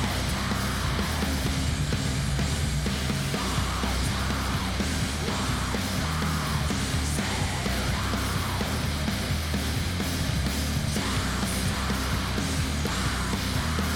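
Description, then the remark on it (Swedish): A loud, dense stretch of sludge metal by an Italian band: thick, heavily distorted guitars and a pounding low end fill the sound without letup, with what seem to be harsh, yelled vocals buried in the mix. “Tydligen är det här sludge. Jag hade nog bara tänkt att det var death metal faktiskt.”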